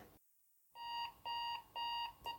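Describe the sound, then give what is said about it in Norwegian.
A kitchen timer set for 15 minutes, timing a home coronavirus rapid test, goes off with a series of shrill electronic beeps: three clear bursts in a steady rhythm and a fourth starting, loud, with no talking. “Og da er det bare å sette på timer på 15 minutter.”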